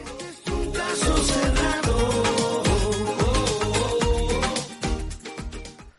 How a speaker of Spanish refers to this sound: El primero, la música, el tema principal que vamos a dejar de escuchar a continuación